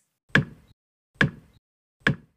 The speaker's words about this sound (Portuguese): Fechou janelas e portas e ficou à espera dos gigantes. Enquanto aguardava, ouviu um barulho que parecia com marteladas abafadas